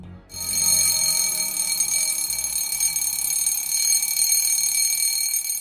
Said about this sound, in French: Le titre s'achève sur la sonnerie stridente d'un réveil qui marque le retour à la réalité.